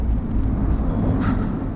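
Inside a moving car, a steady low road rumble fills the cabin, loud and continuous, with a couple of short hissing swishes rising briefly over it. No one speaks.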